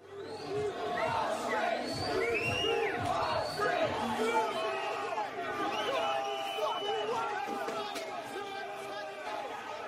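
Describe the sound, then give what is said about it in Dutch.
A large crowd of discontented protesters in New Zealand shouts and chants together in a dense, continuous roar, with voices rising and falling over a steady babble and no single voice standing out. “Mensen zijn ontevreden. het is te horen.”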